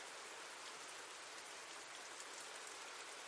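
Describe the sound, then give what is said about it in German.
Steady rain falls without a break, a soft, even hiss of drops pattering on a surface, fairly quiet and unchanging throughout, with no voices or other sounds. “Leider misslang jedoch auch der Versuch, einen verwertbaren Abdruck von den Fußspuren zu erstellen, bevor der nächste Regen einsetzte.”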